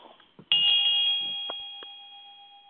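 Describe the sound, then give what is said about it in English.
A ritual bell is struck once during a ceremony at an altar as the chalice is elevated, ringing out with a sustained, shimmering tone that slowly fades, with a few faint clinks as it settles. “Field replaces the wand on the altar, and then he elevates the chalice, and Vine rings the bell.”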